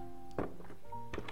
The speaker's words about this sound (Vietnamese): đột nhiên nghe thấy trên hành lang ngoài cửa có tiếng bước chân thông dong vang lên đó là âm thanh phát ra từ chiếc ủng dẫm trên sàn nhà